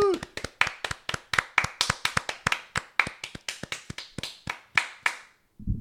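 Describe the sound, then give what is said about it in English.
A short burst of applause for mothers at the end of a show: brisk, sharp hand claps from what sounds like a small group, steady for about five seconds before stopping abruptly, with a brief vocal whoop at the very start. “Can I get a little round of applause for mothers?”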